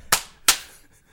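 Two sharp hand slaps land about a third of a second apart, each a crisp, loud smack with a quick decay, close to the listener and with no voices.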